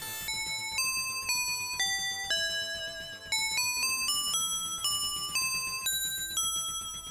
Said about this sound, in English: And uh, again, no PSG. The bells don't have that bell patch. Just doesn't have the same bell sound as the uh, the arcade version. I think that might have been intentional.